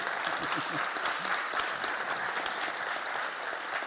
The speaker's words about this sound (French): Ouais, il est là, il est là Voilà, vous pouvez l'applaudir.